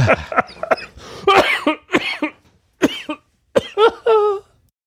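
A fit of harsh, sputtering coughs comes in uneven bursts, loud, with short gasping pauses between them, from a person who has choked on something that went down the wrong way.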